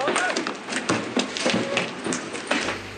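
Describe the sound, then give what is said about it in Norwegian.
A chaotic street riot in Belfast at night: a roaring crowd shouts continuously while sharp bangs and crashes of thrown bottles, firebombs, bricks and fireworks burst out every fraction of a second, loud. “Igjen flyr flasker, brannbomber, murstein og fyrverkeri gjennom lufta.”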